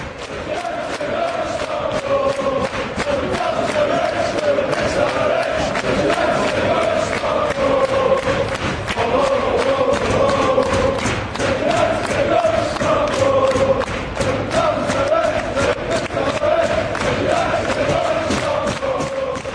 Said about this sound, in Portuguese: É uma música que eles estão cantando direto no Manchester United. Fiquem de, com o ouvido ligado, que vocês vão ouvir esse ritmozinho tocando nas arquibancadas do Manchester United em breve, dizendo que eles vão lá para Estocolmo e vão beber muito.